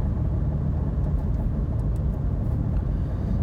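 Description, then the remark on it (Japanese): Steady low-frequency road rumble inside the speaker's own car driving in Japan on a warm day with the windows closed, recorded as a microphone test; a constant engine-and-tire drone with faint higher hiss and occasional small ticks, no voices. “収録テスト音源 走行中”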